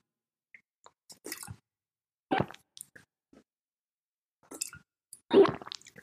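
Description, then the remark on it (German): A person imitates another person drinking water, making loud, wet gulping sounds close to the microphone: a series of squishy, plopping swallow sounds in irregular bursts, ending with one especially loud gulp. “Der schluckt unglaublich laut.”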